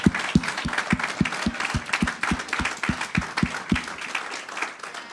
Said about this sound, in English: Come on. Give the word of God a clap. Come on.